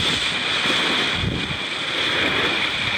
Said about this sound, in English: Got a lot of squalls coming through every few minutes. The boat speed sits at between 8 knots and, and 11 or 12. We just had a surge up to about 12 and a half knots and that was pretty awesome.